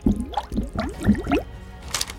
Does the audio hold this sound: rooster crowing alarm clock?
no